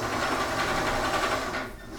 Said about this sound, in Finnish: Mitähän tällä valmistuu tällä ompelukoneella?